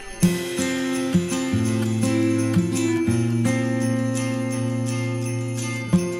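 An instrumental song intro with no vocals: sustained, ringing chords shift every second or so, with a few sharper struck accents, played at a steady moderate volume.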